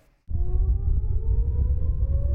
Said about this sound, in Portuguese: dia 7 de outubro, eles acordaram às 6 e meia da manhã com a primeira sirene do Domo de Ferro, o sistema de defesa que alerta sobre os ataques com foguetes.